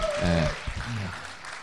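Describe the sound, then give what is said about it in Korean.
A short burst of steady clapping from an audience, a dense crackling patter lasting about a second and a half, with a couple of voices calling out over it. “아, 박수 주세요.”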